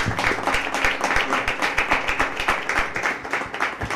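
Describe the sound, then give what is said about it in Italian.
Steady audience applause for a young man, an international DJ, a dense wash of many hands clapping at a fast, even rhythm with sharp individual claps standing out, sustained at a consistent moderate loudness throughout. “farei un ragazzo, applauso.”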